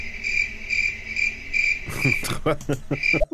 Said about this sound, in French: C'est comme genre un, un gros blanc, un petit peu. Ça s'appelle les grillons, genre. C'est un gros blanc.